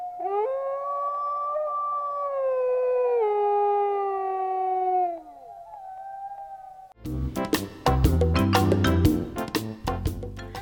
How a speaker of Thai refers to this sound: ได้คำตอบเกี่ยวกับเสียงฮอนของหมากันไปแล้วนะคะ คราวนี้ก็สบายใจขึ้นได้แล้วแหละว่าอย่างน้อย มันก็ไม่ได้เห็นผีแน่นอนค่ะ